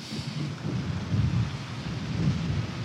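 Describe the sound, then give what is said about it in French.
Strong storm wind roars and gusts continuously, a loud, low rumbling rush with buffeting surges that swell and ebb for a few seconds, with no voices, during a storm at Cherbourg in the Manche, France. “Racontez-nous un peu comment la force et la puissance de ces vents.”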